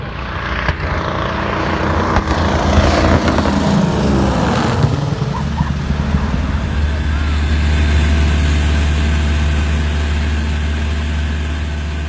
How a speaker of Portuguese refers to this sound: Entra todo mundo, senta e tal dá na partida no motor, começa a correr a pista, decola.